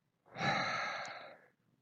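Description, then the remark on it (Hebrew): A single heavy, breathy exhale blown into the microphone, a broad rushing hiss lasting just over a second before fading out, with no talking. “יש לך נשימות גם”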